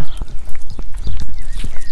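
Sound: horses walking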